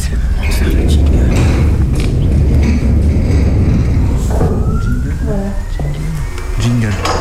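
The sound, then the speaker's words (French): A heavy, continuous mechanical rumble of an observatory dome's second door sliding open, an opening running from the zenith down to the horizon, joined midway by a rising motorized whine, with people talking over it. “Je vais vous ouvrir la deuxième porte, comme ça vous allez voir que ça part vraiment du haut jusque là.”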